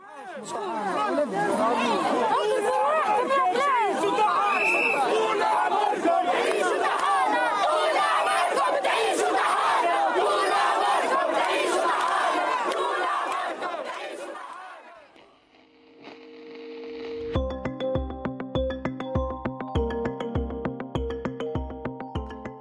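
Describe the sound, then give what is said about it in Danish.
A large crowd of protesters in a street in Tunis, Tunisia, protesting corruption, unemployment and poor living conditions ten years after the revolution, shouts and chants loudly in a dense, roaring mass of voices for about fifteen seconds, then gives way to rhythmic music with a steady beat. “I dag 10 år efter revolutionen i Tunesien, er der igen protester her på selv samme gade.”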